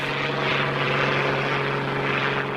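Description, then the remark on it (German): A rescue helicopter flies rescue teams toward an avalanche site, droning steadily overhead, its rotor and engine making a continuous loud whirring hum with a low mechanical tone throughout, no voices present. “Der Hubschrauber bringt die Rettungsteams möglichst nah dorthin, wo die Verschütteten vermutet werden.”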